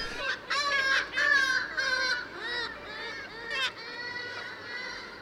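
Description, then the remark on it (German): Black-legged kittiwakes calling repeatedly, harsh nasal cries overlapping in a busy chorus, loud, rising and falling in bursts over steady background noise. “Ich finde Kitty Wake lautmalerisch eigentlich viel schöner.”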